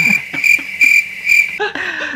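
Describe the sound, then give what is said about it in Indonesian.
A cricket sound effect: a cricket chirps steadily in short, evenly spaced pulses, a bright, shrill trill that stays loud throughout, with no one talking over it. “sound efek jangkrik”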